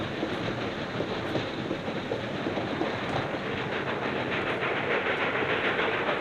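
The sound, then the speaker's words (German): A moving train carriage rolls along with a steady, loud rumble and faint rhythmic clickety-clack of the wheels, a continuous hissing roar filling the space with no voices. “Deswegen müssen wir mit dem Zug in Verbindung bleiben.”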